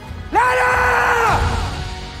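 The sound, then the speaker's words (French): A single loud, strained creature-like cry of a human undergoing mutation, from the trailer of the film Le Règne animal by Thomas Cailley, starts abruptly, holds a tense, harmonic wail for about a second, then drops off into a low rumbling background. “les voix et les cris de la mutation”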